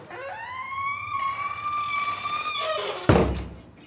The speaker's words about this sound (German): Wir haben es geschafft. Wir sind im Soul of Africa Museum. Ich habe hier gerade geklingelt. Das war so lustig. Unten an der Tür stand, bitte klingeln, fünf Minuten warten oder eine Handynummer anrufen.